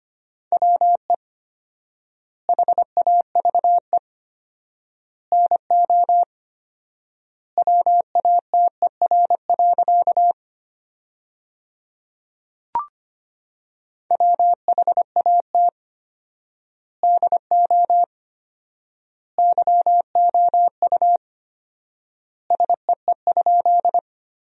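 Morse code beeping at 25 words per minute with 4x word spacing, sending sentences made from the top 100 words: a single steady mid-pitched tone keyed in quick dots and dashes, grouped into words separated by long silent gaps, with one brief click partway.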